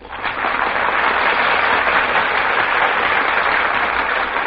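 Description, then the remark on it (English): A crowd applauds steadily as the stars of the play walk from the wings onto the stage, a dense wash of many hands clapping that swells up within the first half second and holds at an even, loud level throughout, with no voices heard. “That applause, ladies and gentlemen, is for our stars who have just walked from the wings onto the stage.”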